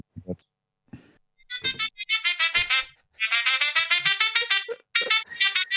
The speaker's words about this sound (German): Das ist der geilste Melderton der Welt. Also, wenn ihr das hört, dann seid ihr auf jeden Fall gut dabei.